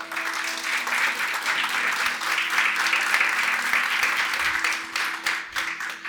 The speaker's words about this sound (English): God is going to give him a round of applause.